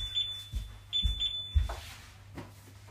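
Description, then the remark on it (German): A refrigerator door alarm beeps in short, high-pitched pairs, steady and moderately quiet, over soft kitchen handling thumps and low background rumble; no one speaks. “Ja, Kühlschrank nicht piepsen.”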